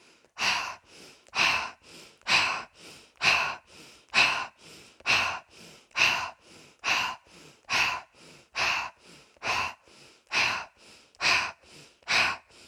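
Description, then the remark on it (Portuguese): Forceful, deep breathing during a guided breathing exercise, with loud, airy inhales and exhales alternating in a steady, quick rhythm, roughly a dozen breaths in a row with no talking. “Respire com força e tire qualquer medo do seu próprio poder, do seu próprio brilho.”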